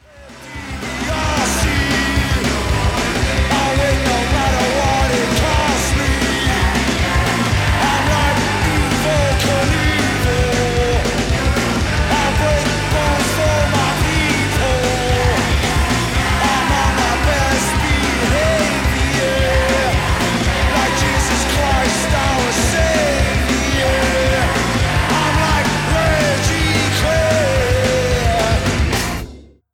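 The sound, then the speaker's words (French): A loud, fast punk rock song, an album's opening track, with driving distorted guitars at full speed, pounding pumchak-style drums and energetic, not very in-tune shouted vocals, playing continuously at full intensity from start to finish. “Si on résume, on a des guitares à toute vitesse, une batterie en mode pumchak pumchak, un chant énergique et pas très très juste, et surtout une fin super abrupte.”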